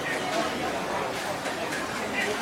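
Busy hawker centre food court ambience: a dense, steady wash of overlapping crowd chatter at moderate loudness, with no single voice standing out, plus faint clinks and bustle mixed into the din.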